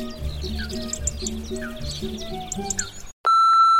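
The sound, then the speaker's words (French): Birds chirp busily in a dense chorus of short, repeated tweets over a low, steady musical drone, then a sudden loud electronic beep with harmonics cuts in near the end. “Surtout les oiseaux que l'on entend discuter à longueur de journée.”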